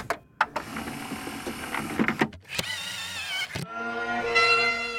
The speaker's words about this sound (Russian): Слышите? Что это? По-моему, волынка. Но звучит необычно.